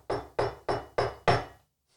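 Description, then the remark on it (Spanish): Five firm knocks on the studio door in a steady, even rhythm, each with a short resonant decay, fairly loud, followed by quiet. “Alguien golpea la puerta”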